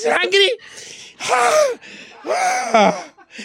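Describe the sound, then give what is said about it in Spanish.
A man's voice imitates someone choking, with three loud, strained gasping bursts separated by raspy, breathy intakes of air. “Y empieza así la, el chorrote de sangre y el cuchillo encajado y él se empieza a ahogar en...”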